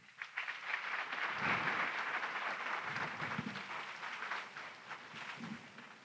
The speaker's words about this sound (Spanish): Y démosle un aplauso al Señor por eso.